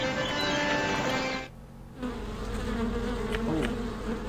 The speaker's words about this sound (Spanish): Hay moscas acá. O abejas, no sé qué son.